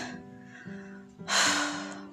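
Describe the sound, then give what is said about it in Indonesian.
Out-of-breath panting after walking a fair distance: a brief voiced hum, then a loud, airy gasping breath that rushes out and trails off. “Ini tadi habis jalan Inilah efek usia ya usianya berapa sih ini aku udah jalan, jalan agak jauh aja udah ngos-ngosan gitu”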